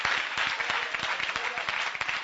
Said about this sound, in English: Oh, then clap your hands for Jesus.